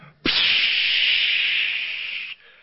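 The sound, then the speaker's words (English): A sudden, steady hiss of Freon refrigerant gas escaping under pressure as ice is chipped with a tiny screwdriver, starting abruptly and holding loud and bright for about two seconds before cutting off sharply. No one speaks. “and this stuff's coming out. I think they call it Freon.”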